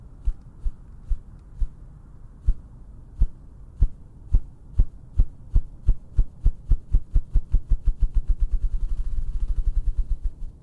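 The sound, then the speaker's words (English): Ruffed grouse drumming, a recording from the Cornell Lab of Ornithology's Macaulay Library: deep, muffled thumps that begin slow and evenly spaced, then steadily speed up into a rapid whirring roll, with no voices. “the low wavelength of the ruffed grouse sounds could keep them safe”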